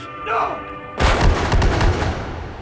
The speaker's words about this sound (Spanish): allí murió abatido a tiros